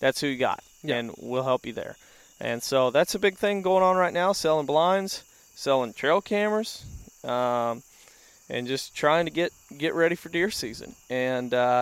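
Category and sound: insect, crickets chirping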